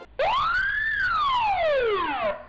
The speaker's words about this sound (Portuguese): Bota uma sirene aí, mim, cara.